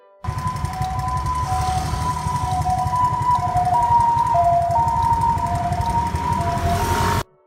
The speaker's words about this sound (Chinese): 好，我们先来听一下哈，这个是救护车由远方靠近你，然后呢，再从你这个地方再远离你，那听到这个声音是这样子的。